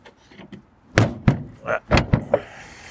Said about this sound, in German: Oh. Irgendwie hat's da noch. Irgendwie scheppert es. Ich bin noch kein Experte, was Autos angeht. Irgendwie scheppert es da gerade